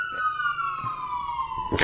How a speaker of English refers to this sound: I, I, think a police car drove by. I don't know.